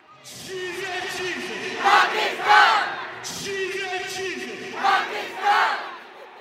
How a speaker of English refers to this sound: The energy was frantic and hostile. People shook their fists at the Indians across from them. Allah! Allah! Allah! The crowd was intense, shouting things like Allah is great and long live Pakistan.